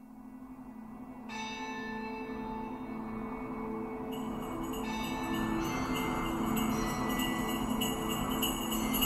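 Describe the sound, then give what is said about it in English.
Church bells ring continuously in a dense, overlapping peal, with sustained metallic tones that build and grow brighter partway through, steady and fairly loud with no voices. “From the first Christmas when the angels proclaimed to the shepherds, For there is born to you this day in the city of David a Savior who is Christ the Lord, to church bells ringing through the centuries, reminding everyone that the Savior has come.”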